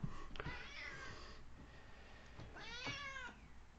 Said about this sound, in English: Those my cats? No, that's my cat. She just got on the desk.